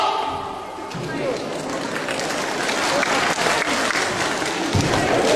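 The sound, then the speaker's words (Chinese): Sustained audience applause at a live stage show, a dense wash of many hands clapping that holds steady and grows slightly louder over several seconds, with a few heavier thumps near the end. “如果掌声激烈的话，我现在就翻两个，好吗？”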